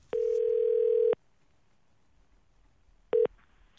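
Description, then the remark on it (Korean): A steady telephone ringback tone of an outgoing call to a listener sounds for about a second, followed by silence and then a second brief beep of the same pitch, with no talking. “하지만 아들이라는 분께 전화 걸어보도록 하겠습니다.”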